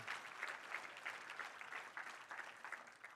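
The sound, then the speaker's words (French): A church audience applauds steadily after the preacher declares that Jesus is alive. Dense overlapping claps form a continuous crackling wash at a moderate, even level with no voices over it. “Ça mérite une main d'acclamation.”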